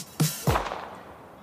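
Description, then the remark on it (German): Two sharp firecracker bangs go off in quick succession at the end of a jingle, loud, each leaving a short echoing tail that fades out. No voices are heard. “dieser Jingle, der Knaller des Tages, jetzt wissen wir alle, worum es geht.”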